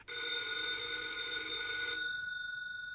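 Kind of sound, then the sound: household object, telephone ringing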